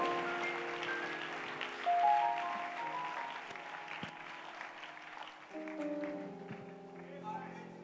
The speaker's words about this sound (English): Clap your hands for that master